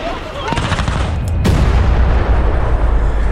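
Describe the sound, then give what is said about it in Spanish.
A sharp, loud blast bursts out as a Tesla car is deliberately blown up by its owner, over a dense roar of rumbling noise, followed by sustained low crackling and rumble, with some indistinct voices mixed in. “De plano, para cobrar el seguro y así se escuchaba el momento de la explosión.”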